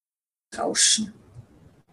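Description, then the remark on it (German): After a moment of silence, a single hissing breath, exhaled through the nose and narrowed in the larynx, rushes through a constricted throat like ocean surf, loudest in its first half-second, then trails off into a soft, airy wash. “Später schließt man den Mund und äh, atmet weiter aus durch die Nase, hört aber durch die Verengung im äh, Kehlkopf dieses Meeresrauschen.”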